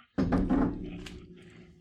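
A bottle of newly sent beer is opened with an opener: a sharp clack as the cap is pried off, a lingering low ring, then a brief soft fizzing hiss. No voices.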